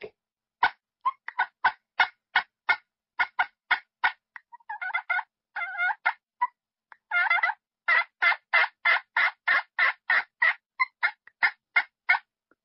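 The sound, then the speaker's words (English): A pot-style turkey call, worked with a diamond wood striker to imitate a hen, sounds a steady string of sharp, raspy yelps and single clucks, broken midway by rolling purrs, loud with no talking. “Yelp and Cluck and Purr. If you can do those three calls on a pot call, that's all you need to know how to do.”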